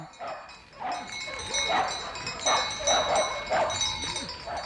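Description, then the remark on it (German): Several dogs howl and yelp together in a rising, overlapping chorus, with wavering drawn-out cries repeating every second or so over a steady background hiss. “Und ja, Hunde hatten die recht viele und die konnten ganz schön anfangen zu singen.”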